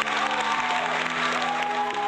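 crowd, audience applause

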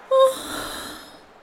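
human body sound, yawn

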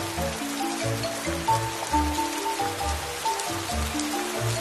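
nature, raindrops falling

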